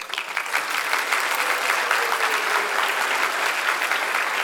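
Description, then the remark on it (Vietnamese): An audience at the Arena Multimedia talk show Design to Grow claps steadily to thank Arena Multimedia, a dense, even wash of many hands that holds at a constant loudness throughout, with no voices standing out above it. “hãy dành một tràng pháo tay để cảm ơn Arena Multimedia với talk show mang tên Design to Grow.”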